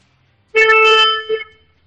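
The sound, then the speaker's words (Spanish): The horn of a 2019 car, sounded by the front passenger, blares loudly in one sustained blast of nearly a second, followed by a brief second toot, with quiet before and after and no talking. “Pues dile al copiloto que toque este el, oh, el eh, claro, un par de segunditos. Venga, dale a ver cómo suena.”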